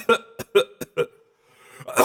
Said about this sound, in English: I'm coughing too.